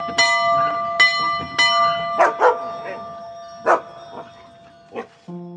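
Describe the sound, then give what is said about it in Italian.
A doorbell rings three times in quick succession, its tones lingering, as a dog's owner rings at the front door; then the dog, standing in front of the door, barks in several sharp, separate bursts. “Beh, per il semplice motivo che vedo il cane in carne ed ossa davanti alla nostra porta, mentre il padrone sta per suonare il campanello.”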